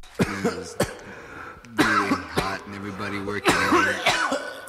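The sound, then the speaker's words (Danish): A series of sharp coughs and throat-clearing bursts comes in uneven clusters, mixed with voiced, hoarse vocal sounds between them. “men vi skal lige have hostet af.”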